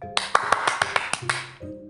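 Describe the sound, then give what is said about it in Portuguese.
A quick, steady run of about eight sharp hand claps lasting just over a second, set against a faint sustained tonal hum that continues after the clapping stops. “Parei, palmas.”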